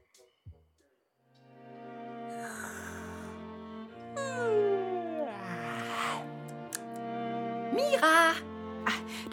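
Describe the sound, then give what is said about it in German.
A tomcat calls out with a few drawn-out, wavering meows that slide down and then rise again, fairly loud, over a steady sustained musical background. “Kater ruft.”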